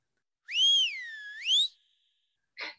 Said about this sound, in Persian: تاکسی گرفتیم و نشانی خانه را که دادم سوت بلندی کشید و سرش را تکان داد